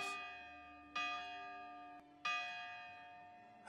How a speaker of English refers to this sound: but when a morning church bell rings